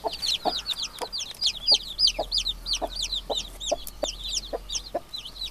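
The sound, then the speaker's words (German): Chickens cluck in a steady, busy chatter, with many short overlapping calls repeating several times a second against a quiet background, with no talking. “Das ist doch ein Huhn oder so. Ist das ein Huhn? Ja, das ist, das ist tatsächlich schon richtig.”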